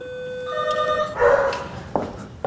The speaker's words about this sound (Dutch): Ik hoorde een hond. Ja, dat is, dat is Bert. Bert. Een bejaarde hond van 12.